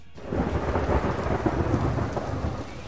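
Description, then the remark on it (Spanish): A steady thunderstorm sound effect played from a button, with heavy rain pouring and a deep, rolling rumble of thunder filling the background, loud and continuous for a few seconds with no voices. “¿Cómo te gusta el botoncito ese de la tormenta?”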